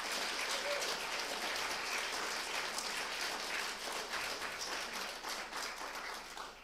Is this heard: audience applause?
yes